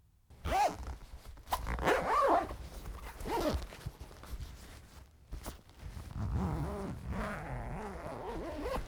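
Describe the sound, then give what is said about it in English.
A zipper is pulled open in a couple of quick rasping strokes, followed by rustling and crinkling as things inside a bag are shuffled around, with no one speaking. “Um, but first, I got to see what's in this bag.”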